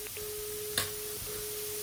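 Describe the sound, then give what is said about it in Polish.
A steady, thin telephone line tone hums through a handset, continuous and fairly quiet, with a brief click partway through and faint background noise, no one speaking. “No sygnał może.”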